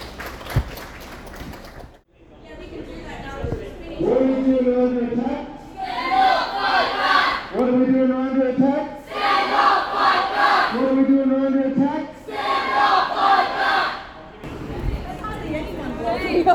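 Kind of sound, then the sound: crowd, protest crowd chanting slogans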